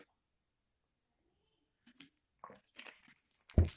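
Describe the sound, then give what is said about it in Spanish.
Mouth sounds of someone drinking water: a few soft wet gulps and swallows passing down the throat after a quiet start, ending in a louder, fuller gulp. “No sé si lo escuchan pasar por mi garganta.”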